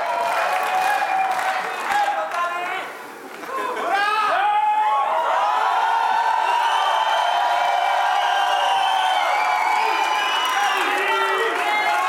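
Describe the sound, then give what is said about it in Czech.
A packed hall of people chanting "President" in unison as the Czech president-elect and his wife come onto the stage, loud and continuous, with rhythmic voices, cheers and scattered applause filling the hall for the whole stretch. “Tak zatím se ozývá plný sál, který skanduje prezident.”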